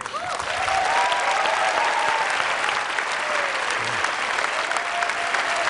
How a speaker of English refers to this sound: Big applause.